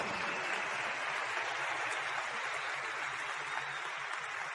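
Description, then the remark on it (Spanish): Sustained applause from a crowd, a dense, steady wash of many hands clapping at an even loudness for several seconds with no talking over it. “Y hace que darle un fuerte aplauso a eso.”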